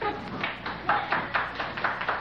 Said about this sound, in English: Wait a minute now. The bartenders are applauding, folks. And the girls in the back room are applauding.